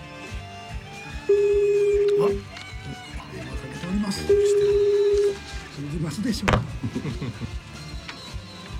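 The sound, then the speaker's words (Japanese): Two long, steady ringback tones, each about a second, sound over a line with a pause between them, heard through phone-line hiss, followed by brief rustling and clicks as the call connects; an unannounced call placed by Radio Nikkei to a Grand Prix winner from Musashino City. “恒例のアポなし電話を入れてみたいと思います”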